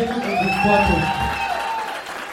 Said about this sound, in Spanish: Bien. Un aplauso.